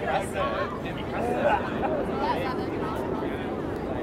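A dense wash of overlapping voices: many tourists chattering at once in a steady, busy hubbub in Times Square, with no single speaker standing out.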